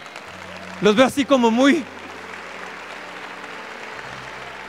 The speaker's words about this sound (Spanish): Ahí denle un aplauso al Señor, ¿no?